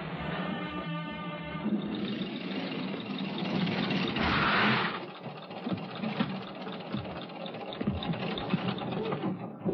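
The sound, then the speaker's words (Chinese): A car engine rumbles steadily with a rattling, mechanical texture, swelling louder for a moment midway before settling back into a continuous drone as the Germans' car pulls up. No voices are heard. “但这时，德国人的汽车也前来光顾。”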